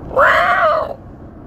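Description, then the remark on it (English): A red-tailed hawk gives one loud, hoarse scream that rises slightly then trails downward, lasting under a second, with no voices and only a faint low hum around it. “There's another red tailed hawk.”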